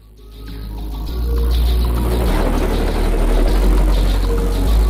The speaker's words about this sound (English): That helicopter going by, is that part of your shipment?